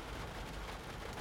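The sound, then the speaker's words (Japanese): A soft, steady hiss of rain falling outside during the rainy season (tsuyu), continuous and even throughout, with no voices present. “今日は雨が降っているのでちょっとね俺の話している後ろで雨の音が聞こえると思いますうるさいかもしれませんが今は雨の季節なのですみません今日はこの雨の音と一緒に話を聞いてください”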